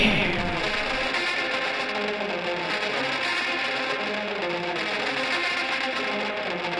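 A rock song intro: heavily distorted, effects-laden guitars form a dense, buzzing wall of sound that stays steady and loud throughout, with no vocals yet.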